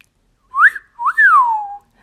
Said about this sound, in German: Als der Römer wenig später von der Arbeit nach Hause kam, pfiff er begeistert.